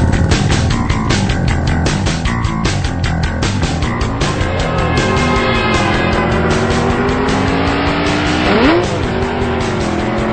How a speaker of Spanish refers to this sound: enseguida el Waffles, así con todo y alfileres, monta su motocicleta prestada y se lanza a toda velocidad hacia el lugar de su boda.